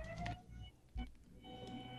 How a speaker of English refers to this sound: Well, um, I have to apologize because there's a there's a garbage truck stalled oh. in front of my apartment.